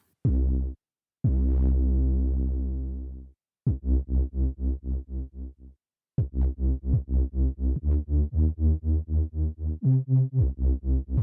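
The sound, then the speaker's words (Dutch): Deep, resonant bass tones from a homemade bass instrument of iron wire sprigs sticking up in random directions, touched with the fingers: first a long sustained note, then a steady run of short plucked notes in an even rhythm, clear with no talking. “Dit is dus een voorbeeld van het basinstrument dat ze heeft gemaakt.”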